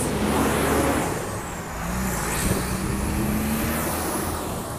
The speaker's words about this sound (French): pardonnez-moi le bruit. Mais avec cette, accélération-là, comme je vous dis, je vais juste attendre que le camion passe.